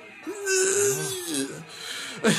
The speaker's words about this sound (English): He spears …, uh, … again and asks asked him to come to the ring. And is that … wheezing like that?